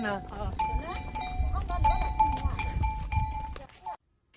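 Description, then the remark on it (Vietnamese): A bustling buffalo market in Cán Cấu, Si Ma Cai district, Lào Cai province, Vietnam, where people bring buffalo to sell before Tết: overlapping voices, clanking animal bells and scattered animal calls, busy throughout before cutting off abruptly near the end. “Đến phiên chợ cán cấu, người thì đem trâu đi bán lấy tiền sắm Tết, người bán trâu để có tiền trả nợ hoặc đầu tư sản xuất cây con mới.”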